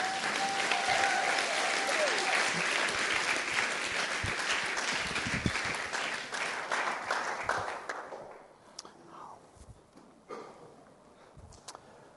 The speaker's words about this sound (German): Lass uns ihn nochmal mit einem herzlichen fränkischen Applaus begrüßen.